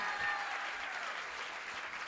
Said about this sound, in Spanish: Si tú le vas a dar un aplauso a Dios, dáselo bien.